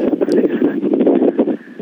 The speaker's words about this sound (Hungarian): de a szél az olyan, hogy nem tudjuk megváltoztatni, vagy fúj, vagy, nem.